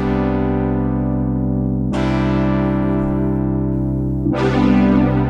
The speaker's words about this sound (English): Rich chorus to your synths.